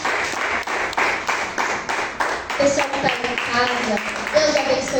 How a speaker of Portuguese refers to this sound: Aplauda, Senhor.